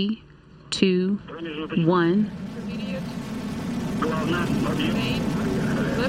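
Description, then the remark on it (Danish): A rocket lifts off with a loud, steady, rumbling roar that swells in after a brief spoken voice and continues to the end. “And lift off.”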